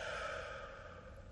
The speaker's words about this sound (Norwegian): Rolig pust inn her. Et mykt og langt pust ut.